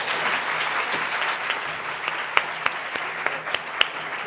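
An audience at a conference applauds steadily, a dense wash of many hands clapping at a moderate, even level, with a few sharper individual claps popping out above the crowd toward the end.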